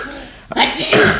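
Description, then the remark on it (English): A single loud sneeze: a brief quiet catch of breath, then an explosive burst of breathy, hissing noise that trails off over half a second. “Gesundheit.”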